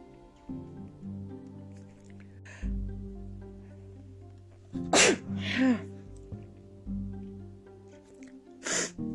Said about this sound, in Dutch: Sorry, ik even niezen tussendoor.